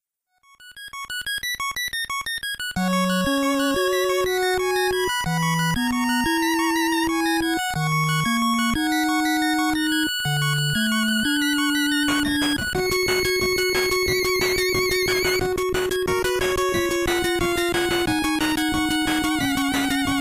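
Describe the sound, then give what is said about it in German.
A video game soundtrack's moon theme: a dreamy, high chiming melody opens alone, then a steady low bass line and fuller synth layers join, building into a brisker, denser tune with no voices. “Das heißt, du hörst auch jedes Musikstück häufig und dieses Mondthema, das sticht schon immer heraus.”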